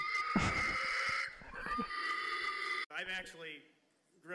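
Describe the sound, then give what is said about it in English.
At a pig calling contest, a loud, strained human voice hollers and squeals in a pig-calling style, harsh, in long sustained bursts before trailing into shorter, wavering calls. “Pig Calling”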